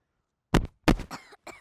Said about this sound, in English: You cough.